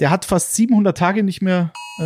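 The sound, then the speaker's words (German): A man talks steadily, then a short, steady electronic emergency alert tone, sounding at 11 o'clock on a warning day, cuts in during a pause before his voice returns. The tone is brief and clear. “Es ist 11 Uhr Alarm, Alarm.”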